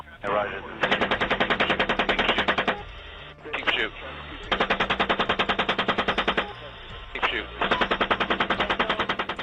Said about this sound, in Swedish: I helikopterkabinen syns folksamlingen som suddiga konturer på en skärm. De påminner om figurerna i ett dataspel. Och piloterna skämtar med varandra medan kulorna penetrerar människors kroppar långt där nere i den verkliga världen.